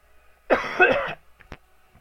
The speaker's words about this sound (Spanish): Tan culero en el micro. La pinche tos. De perro que da.